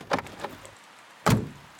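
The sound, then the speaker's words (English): A door is pried open: a couple of light latch clicks, a brief pause, then one loud, heavy thunk as it swings. No one speaks. The door is at Magpie's hideout on a small island in the middle of the ocean. “Now, Shadow, if you'd be so kind and use those borrowed eyes of yours to pry open the door.”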